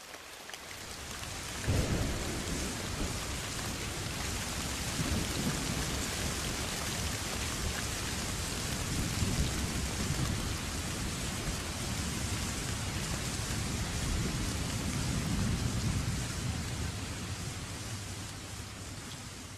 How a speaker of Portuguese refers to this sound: Vocês acabaram de ouvir uma tempestade na Amazônia. As tempestades são muito comuns nos meses de novembro a março, chamado período das chuvas.